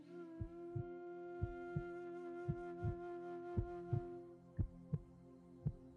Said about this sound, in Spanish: Siente el latido de tu corazón.